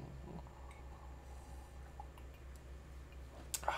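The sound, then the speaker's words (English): A brief, faint clink of ice against a glass of ice-cold rye whiskey near the end, over a steady low background hum with no one speaking. “Unlike this ice cold glass of rye whiskey that I'm sipping on tonight.”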